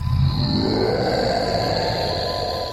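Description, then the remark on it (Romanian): A deep, menacing monster roar rumbles continuously for a few seconds, loud, with a gritty low growl and a sustained hissing, sizzling texture layered above it. “De câte ori vorbim despre ei, rag așa amenințat”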